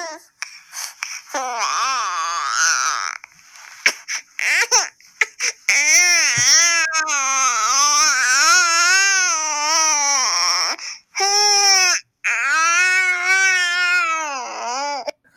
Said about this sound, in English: that is a, uh, a, hungry baby sound. yes, indeed. Ping pong. That's a uh, okay. I've passed the point of no return and you have to feed me now.